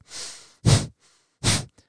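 Forceful breaths in and out through the nose as part of a breathing technique, alternating a soft airy inhale with two sharp, loud exhales in a quick rhythm, with no talking.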